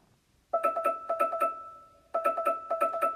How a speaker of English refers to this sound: Yeah, the, the timer and alarm sounds are pretty obnoxious most of the time.